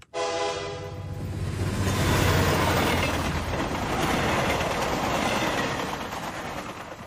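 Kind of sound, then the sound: vehicle, train running on rails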